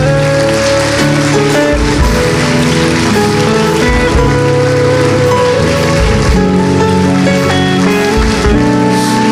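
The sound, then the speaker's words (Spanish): A large church audience claps loudly and steadily for several seconds as applause to the Lord, a dense wash of applause with sustained musical tones underneath and no talking. “Le damos un fuerte aplauso al Señor.”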